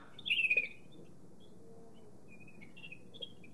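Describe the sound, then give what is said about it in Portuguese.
A person imitates a bird with their mouth: a bright, warbling chirp burst near the start, followed by a few fainter, shorter tweets over a quiet background hiss. “Dá fazer com o passarinho, ó.”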